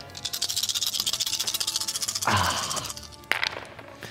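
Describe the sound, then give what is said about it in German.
Nine colorful six-sided dice rattle rapidly for about two seconds, a dense clattering shake, then spill and tumble with a brighter clack and a final sharp knock as they settle, rolled to total lightning damage. No one speaks. “viele bunte Würfel.”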